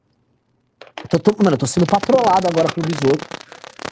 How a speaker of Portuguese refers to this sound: É aquela interferência antiga do celular.